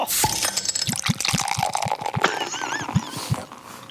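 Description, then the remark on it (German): Glasses clink together in a toast, a rapid scatter of bright, chiming taps over a busy, clattering background that fills the whole few seconds. “Prost! Prost!”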